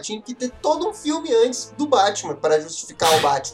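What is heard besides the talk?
sneeze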